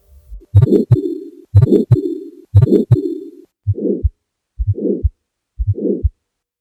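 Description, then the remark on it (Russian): An aortic stenosis heart murmur, as heard through a stethoscope: loud rhythmic heartbeats with a harsh, rough, scraping, medium-pitched crescendo-decrescendo whooshing in mid-systole between the beats, then several quieter beats with softer murmurs. Best heard at the second intercostal space right of the sternum, radiating along the carotid arteries. No talking. “Шум аортального стеноза лучше всего слышен в области второго межреберия справа от грудины вниз до верхушки сердца.”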